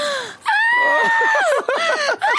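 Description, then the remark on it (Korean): A person vocally imitates the wailing scream of a theater audience member crying loudly during a play: a sustained, high-pitched cry that wavers and breaks into sobbing gasps, loud, with no other talk. “아, 비명 소리 나기도 어, 어떻게 하고.”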